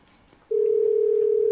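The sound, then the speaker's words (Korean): A steady, single-pitched telephone tone starts abruptly after a brief quiet moment and holds at an even, fairly loud level, with no talking over it, as a call is placed to someone on the Han River bank. “한번 전화를 걸어 보도록 할게요.”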